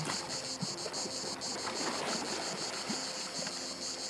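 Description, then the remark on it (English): A dense, steady insect chorus of cicadas buzzing together, growing louder and louder, a pulsing high-pitched drone that fills the scene, with the sea lapping gently and ambient rumble underneath and no voices. “The cicadas chirp in unison, louder and louder.”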